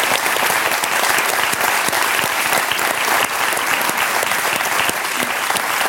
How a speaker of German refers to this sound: Applaus hier.